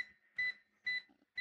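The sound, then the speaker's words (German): An induction cooktop beeps as it is switched on, a steady series of short electronic tones, three clear beeps about half a second apart with a faint continuous hum between them, fairly quiet. “also das Geräusch, das man da hört, kommt vom Induktionsherd, den du gerade einschaltest.”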